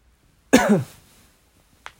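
A single loud cough from a person who is feeling unwell bursts out after a brief silence and rings off quickly, followed by a faint short sound near the end.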